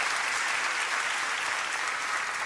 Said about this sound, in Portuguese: Dá uma salva de palmas, querido. Isso que é fantástico. Isso que é fantástico.